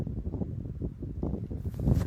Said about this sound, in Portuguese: Ah, barulho de vento é o ventilador aqui. É que eu tô com um ventilador aqui porque tá muito quente, gente.